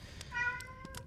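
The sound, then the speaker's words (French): A single drawn-out cat meow, steady and slightly whiny, heard fairly softly with no talking, accompanied by a few faint clicks or taps in the background. “Ah, ça, c'est mon chat qui uh, queen.”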